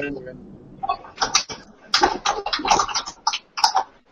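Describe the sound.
Crisp clacking of mechanical keyboard keys in quick, irregular bursts of typing, with a faint voice murmuring beneath the clatter.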